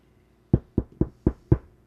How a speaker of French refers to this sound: Ça cogne à la porte de la salle de bain.